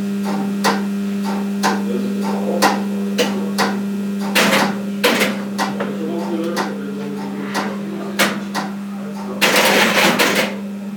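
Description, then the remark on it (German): Relays in a railway interlocking click in a steady repeating rhythm over a constant low electrical hum, the blinking relay sounding as a reminder, with a few louder, busier bursts of clattering switching mixed in as a train departs and the interlocking sets the new route. “Man hört jetzt wieder erst noch das Blinkrelais als Erinnerung.”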